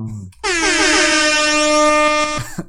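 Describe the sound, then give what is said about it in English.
A single loud air horn blast blares for about two seconds, a steady, brassy tone with rich overtones that cuts off abruptly, with no talking over it. “All right, a couple more air horns.”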